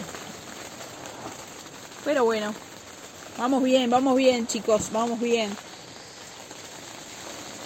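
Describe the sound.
Light rain patters steadily on a tent surface, a soft continuous crackle of scattered drops, while a man talks briefly in a relaxed voice over it.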